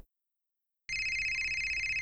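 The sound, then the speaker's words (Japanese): After a stretch of silence, a mobile phone ringtone starts abruptly and keeps ringing steadily, bright repeating tones over a low rumble, slightly muffled; the misplaced phone is being called to find it and is inside a car, having slipped out of a pocket. “あ、鳴ってる。”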